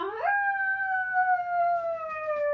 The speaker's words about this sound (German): Das ist ein Wolfsgeheul.